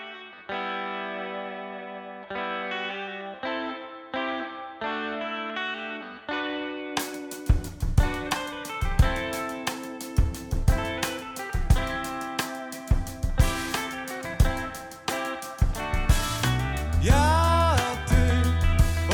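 A band's recorded song opens with a sparse, rhythmic pattern of effect-laden guitar or keyboard notes, then drums and the full band crash in loudly partway through, building a dense instrumental groove without vocals.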